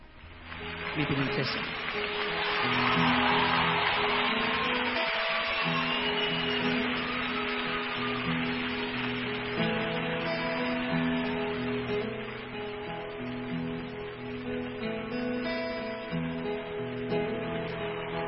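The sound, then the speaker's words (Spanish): A song plays on the radio steadily at a fairly loud, even level, with full layered instrumentation and sustained tones running throughout, and no one talks over it. “decía que quería escuchar este tema y se lo quería dedicar a Eva”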